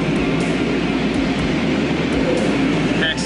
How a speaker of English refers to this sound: Not only was he in dad's pickup truck, but now we're going through a car wash. And so now he expects us to go to the car wash every day.